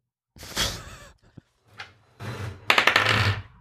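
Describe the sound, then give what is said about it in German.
Dice rattle and tumble: a scuffling clatter, a brief pause, then a quick burst of hard clicks as they bounce across a surface and settle. “Du hast meinen Würfel?”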